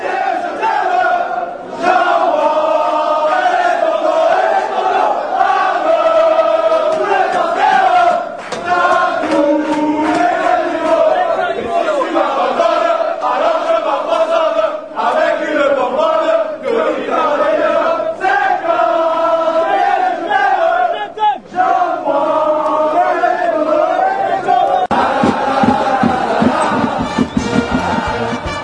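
A large crowd of Olympique de Marseille football supporters sings a stadium chant about pastis in unison, loud and sustained for the whole stretch, the melody rising and falling in repeated phrases with a rough, massed roar beneath the voices.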